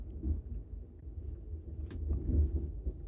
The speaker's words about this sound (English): What is that sound? It's a plane. Jesus, there's that's the, flying so low. The, there's the fucking airport that's right over I there. I know, but they never fly that low.